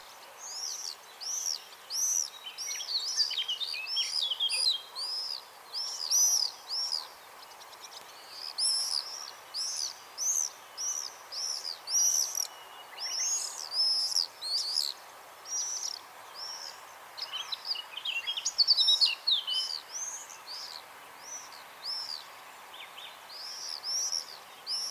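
Common swifts scream over and over in shrill, high-pitched bursts that overlap and come in rapid, irregular waves, fairly loud against a faint steady hum, with no one speaking.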